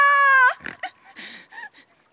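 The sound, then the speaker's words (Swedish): A voice imitates a little pig crying: a loud, high-pitched, drawn-out wail followed by a few shorter sobbing, squeaky whimpers that fade away, alone. “Isa Gris sitter på bron och gråter, så där som bara en liten gris kan gråta.”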